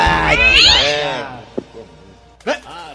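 A cat lets out a long, loud, wavering meow, followed by a faint click and then a shorter, sharper meow near the end.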